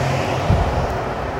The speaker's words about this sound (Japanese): 空調の音がすごいぞここここ空調すごいぞ、ま空調じゃないのこれ何の音だろう、ま分かんないんで一回外に出たいと思うんですけども